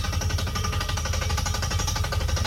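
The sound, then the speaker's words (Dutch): A drilling rig boring a well through rock, going about 90 meters deep in a day and adding a casing pipe every 3 meters, pounds away with a steady, rapid hammering over a deep, continuous engine rumble, loud and unbroken throughout with no voices. “En hij is in totaal die dag zo'n 90 meter diep gegaan. En elke keer na 3 meter moest hij een eh, leiding aanbrengen, een, een hulsel aanbrengen.”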